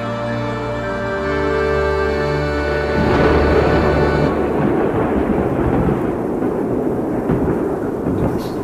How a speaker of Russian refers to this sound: нашу палатку буря не сорвет? Ураган-то какой! Не, не, Мы ее по армейским правилам ставили.